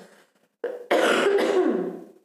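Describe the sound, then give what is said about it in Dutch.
A loud cough: a short catch followed by a long, raspy, harsh burst that trails off, with a throat-clearing quality and no talking. “even hoesten trouwens.”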